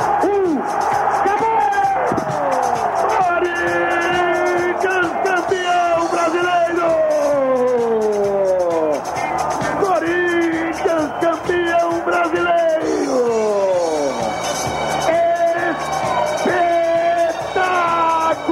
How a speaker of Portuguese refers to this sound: No gramado do Estádio dos Plátanos, as bandeiras preta e branca tremulando, o punho cerrado, o galo, o galo, o galo no coro da torcida Carijó.